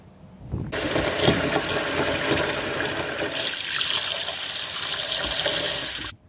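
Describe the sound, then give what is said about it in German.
Water runs steadily from a tap into a bathroom sink where a bath ball is being tested, turning the water blue. The flow starts abruptly, gets louder and more splashy about halfway through, then cuts off at the end. No one speaks. “Also ich habe das jetzt gerade mal im Waschbecken ausprobiert und das Wasser färbt sich richtig schön blau.”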